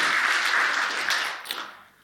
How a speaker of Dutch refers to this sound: Geef ze even applaus.